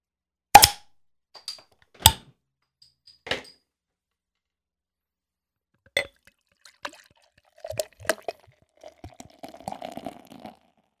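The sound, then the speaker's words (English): A few sharp clicks and knocks as a bottle of 120 Minute IPA beer is opened and handled, then the beer gurgles and glugs into a glass for several seconds, fairly quiet, with no voices. “Good lord, that's pouring like a fucking barley wine.”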